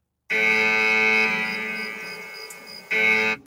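A loud, harsh electronic alarm buzzes in a long steady blast, fades slightly, then cuts back in with a short second burst. No voices are heard.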